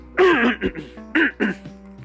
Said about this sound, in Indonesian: Mohon maaf batuk.